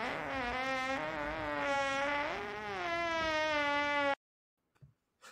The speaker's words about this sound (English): our producer, cut that fart down to about 10% of the actual fart